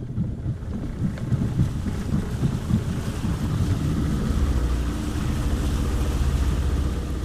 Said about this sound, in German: Der Motor dröhnt. Es qualmt und riecht nach Benzin. Insgesamt 20 Minuten soll die Überfahrt mit der Pirogge von Tubacuta zur Insel Sipo dauern.